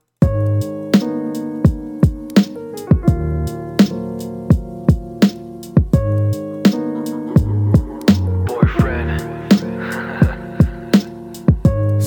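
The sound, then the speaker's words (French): A song from an artist's EP plays loud: sustained synth chords under a steady beat of sharp percussive hits, with a brief swell of noisy texture near the end and no singing. “Puis euh, ben, j'ai le goût de vous faire entendre une autre chanson de son EP.”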